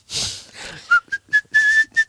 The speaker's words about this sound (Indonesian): Aku ada sebuah persembahan untuk pendengar-pendengar kita. Apa? Apa? Bersiul dengan tersenyum.